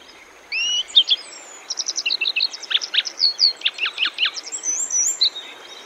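A grey wagtail on the Boso Peninsula, Chiba Prefecture, Japan, gives a run of sharp, high chirps and short trilling calls, clear, repeated in quick bursts over a faint steady hiss with no talking.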